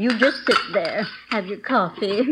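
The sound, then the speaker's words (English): Dishes and cutlery clink and clatter as they are gathered up after dinner, a few sharp knocks scattered beneath a person talking steadily throughout. “Hey, Ma, how about letting me gather you the dishes up?”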